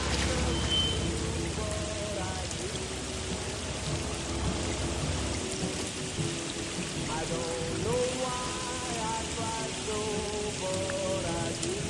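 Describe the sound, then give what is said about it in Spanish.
Heavy rain pours down steadily, a dense hiss of drops pattering on surfaces, with faint tonal background sounds and a low rumble underneath. “Bajo una intensa lluvia, Forrest espera sentado en un banco a la puerta de la residencia femenina.”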